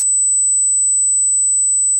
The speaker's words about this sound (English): The rare neurological condition also causes tinnitus, a constant ringing in the ears like this